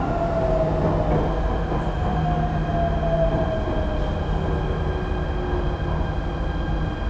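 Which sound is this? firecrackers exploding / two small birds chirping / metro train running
metro train running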